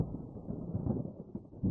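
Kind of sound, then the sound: nature, thunder rumble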